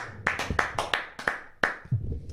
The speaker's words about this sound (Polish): Więc to były, to były brawa dla mojego